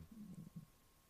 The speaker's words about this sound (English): Was that your stomach that I just heard? I don't know, maybe. sounded like it. Anyway, that was loud.